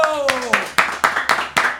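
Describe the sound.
Hands clap in a steady, quick rhythm, about eight sharp claps, while a voice calls out briefly at the start.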